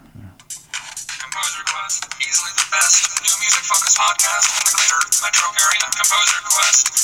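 A vocoded piano performance of Prelude No. 2 from Book One of The Well-Tempered Clavier plays through a tinny cell phone speaker, with rapid, evenly running notes that sound robotic and voice-like. It stays loud and steady for the whole stretch with no bass.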